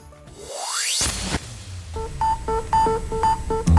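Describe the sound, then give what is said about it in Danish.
A dramatic 1980s-style news intro jingle: a rising synth sweep whooshes upward into a hit, followed by a bold, rhythmic run of bright electronic stabs and tones, loud and alone. “ja, det er lyden af 80'ernes nyheder, er det ikke nærmest?”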